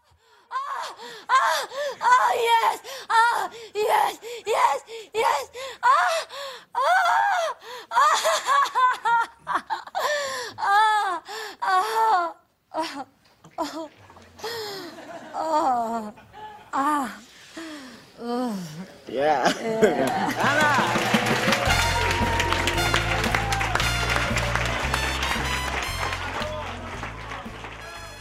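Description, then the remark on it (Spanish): At a fake-orgasm contest, shown in the documentary Fake Orgasm by Joe Sol, a woman performs exaggerated fake orgasm moans and breathy gasps, rising and falling in pitch for about twenty seconds, then loud audience applause and cheering erupts over music. “Ese corte que acabamos de escuchar es de un concurso de orgasmos falsos, de imitadoras de orgasmos, en el documental Fake Orgasm, de Joe Sol,”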